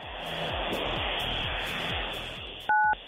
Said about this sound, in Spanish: En la Ciudad de México, entonces tienes que digitar 977 para que se active la ruleta. Corre.